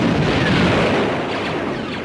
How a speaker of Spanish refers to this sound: Hay disparos láser por todos lados, explosiones, aparecen los soldados del imperio que avanzan sobre la tripulación.